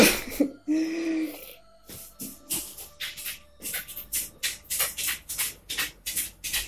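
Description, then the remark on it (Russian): The cat Tigran's claws click and tap on a hard floor as it walks, a series of light, crisp steps falling into a steady rhythm, with soft shuffling and a brief vocal sound near the start. “Он будет цокать, конечно, пока не вляжется тут рядом.”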